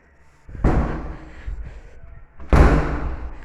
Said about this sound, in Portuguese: Foi mal aí. Tá fechando a porta.